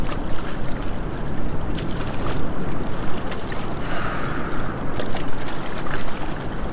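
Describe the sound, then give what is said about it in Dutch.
Water churns and splashes steadily around a small rowing boat that barely moves forward, a continuous wash of sloshing with occasional brighter splashes, like oars pulling through water. No one speaks. “Ik ben kapitein van mijn eigen bootje, maar ik geraak amper vooruit.”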